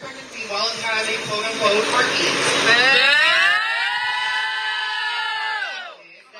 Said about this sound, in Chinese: 聊到了最严堕胎法的时候，观众可能会发出嘘声。